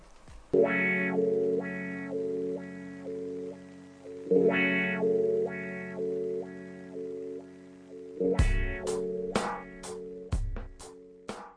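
A son jarocho song recording plays on its own during a show streamed on Facebook Live, with sustained chord-like tones swelling in and out, then sharp percussive strikes coming in near the end. No voices are heard.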